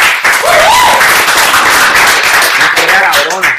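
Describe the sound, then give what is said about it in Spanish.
Loud, dense audience applause on Moluco TV fills the whole stretch, a steady wash of many hands clapping, with a few faint voices and a brief rising whoop mixed in. “Este, mano, aplausos para bien Puñeta”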